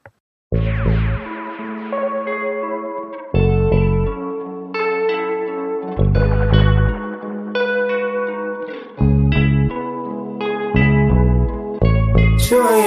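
A smooth R&B track plays, with warm layered chords drifting over deep bass pulses that return every few seconds, steady and fairly loud, with no voices.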